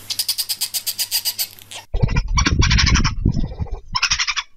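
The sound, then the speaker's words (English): Badger calls: a quick run of about ten rhythmic, buzzy chirring pulses, then louder, harsh growling and hissing bursts in uneven spurts, with no talking. “You want to know what a badger sounds like?”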